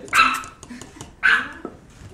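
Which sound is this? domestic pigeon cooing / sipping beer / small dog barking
small dog barking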